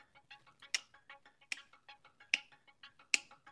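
A faint, steady clock ticking with a quick regular rhythm, about five soft ticks per second, with a brighter, louder tick recurring roughly every 0.8 seconds; no voices.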